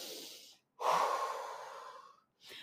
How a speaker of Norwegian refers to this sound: Jeg må bare ta meg et dypt pust, kjenner jeg.